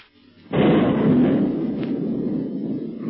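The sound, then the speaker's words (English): Artillery shelling from the gun aboard the octopus boat, bombarding a solid rock cave, erupts with a sudden loud blast, then rolls on as a heavy, continuous low rumble of bombardment for several seconds, with no voices. “The octopus boat is shelling the cave, and as the bombardment continues, it begins to look as if the secret police will not escape this time.”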